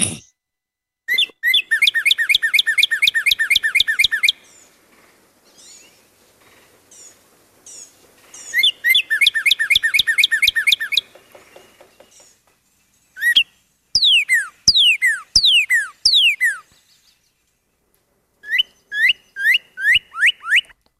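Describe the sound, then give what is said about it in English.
A northern cardinal sings alone, loud: bursts of rapid repeated whistled notes, then a run of sharp down-slurred whistles, with short pauses between phrases. “Let me let me try the cardinal just to make sure that that's not what you're thinking of. Oh. Um, northern cardinal.”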